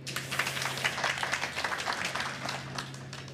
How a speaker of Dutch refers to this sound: Mag ik een applaus voor Bram Esser?